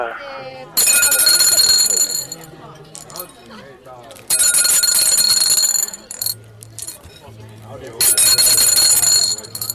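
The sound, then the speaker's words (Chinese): A telephone rings in three long, loud, bright metallic bursts separated by short pauses, with faint voices murmuring in the quieter gaps between rings. “这个电话声。”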